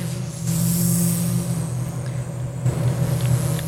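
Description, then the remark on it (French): A voice imitates the drone of a small Cessna propeller plane, a steady, low, buzzing hum held for a few seconds with a faint hiss over it. It stays even in loudness. “… a l'air d'un petit Cessna”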